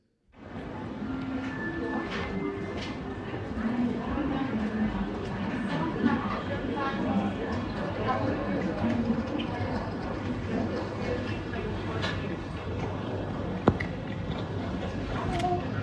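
A steady, busy public-space ambience like a train station, with a constant low rumble, indistinct crowd chatter and pigeons cooing nearby, plus occasional clanks and a brief sharp knock near the end.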